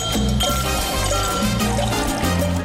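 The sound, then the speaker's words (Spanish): Rum pours steadily into glasses for a few seconds, a continuous gurgling stream set against a dense, constant background with low tones, as two more rum drinks are served. “Uy, me serán otros dos roncitos.”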